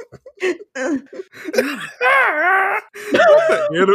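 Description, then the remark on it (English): A voice makes exaggerated, anime-style straining groans and whiny moans in quick bursts, rising and wavering in pitch, fairly loud, with no actual words spoken. “anime struggle noises.”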